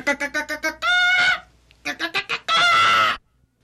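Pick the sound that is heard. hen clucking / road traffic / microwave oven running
hen clucking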